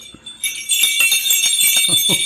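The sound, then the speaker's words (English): Reindeer sleigh bells shaken hard and fast, a loud, bright, continuous jingling that starts after a brief quiet moment and keeps rattling in a quick rhythm to the end. “Oh, since you asked about reindeer, would you like to shake the reindeer bells?”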